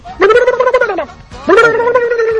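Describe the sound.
A person imitates a turkey gobble in two loud, warbling bursts with a short pause between them. The voice stands alone with no other sounds.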